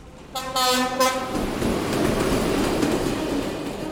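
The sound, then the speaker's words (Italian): A loud train horn blares with strong harmonic tones, then gives way to the steady, heavy rumble of a train rolling along the tracks at a station, with no voices. “Sta aspettando il treno che lo porterà dalla sua amata, anche se purtroppo in stazione non è l'unico.”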